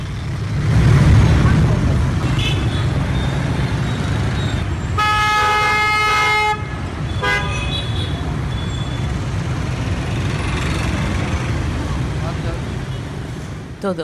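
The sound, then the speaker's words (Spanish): Dense, steady roar of street traffic and motorbikes in Hanoi, Vietnam, cut midway by a long, loud horn blast followed by a short second honk, with the busy rumble continuing throughout. “vamos a poner el ruido de fondo de Hanoi, Juan.”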